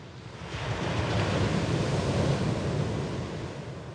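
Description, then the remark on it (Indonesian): Ocean surf rolls in steadily on a beach shore, a broad wash of breaking waves swelling and easing with a soft wind rush, no voices present. “Pada saat Putri Chandra Kirana berjalan di tepi pantai, bertemulah ia dengan si penyihir.”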